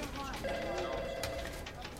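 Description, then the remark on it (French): Andrew Keller's mobile phone rings in the Miami office of the ad agency Crispin Porter Boguski in January 2004, a steady electronic tone that holds for about a second, set against a constant murmur of background noise. “Nous sommes en janvier 2004 et dans le bureau de Miami de l'agence de pub Crispin Porter Boguski, le téléphone portable d'Andrew Keller sonne.”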